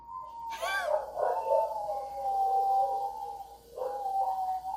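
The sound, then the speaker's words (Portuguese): Several dogs howl together in long, wavering, overlapping tones that rise and slowly fall, fairly loud and continuous throughout, with a fresh howl joining near the end. “Ó, daí um bando de cachorro começou a chorar, que eram os cachorros dele. Começaram a uivar e tudo, porque viram que seu dono estava prestes a morrer por causa de tanta gordura.”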